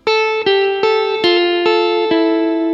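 An electric guitar played through effects, with six sharply plucked notes from Toccata and Fugue in D minor in a steady rhythm, each ringing out into a sustained, harmonically rich tone with a slightly distorted, chorused sheen. No one speaks.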